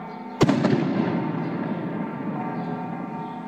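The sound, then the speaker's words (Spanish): A single sharp firecracker bang cracks out outside on a Thursday as the sun sets under heavy clouds, followed by a few quicker pops and a lingering rumble that settles into a steady wash of background noise. “Afuera el espacio sufre a campanadas y cuetones, a trompetazos, tamborazos y panderos.”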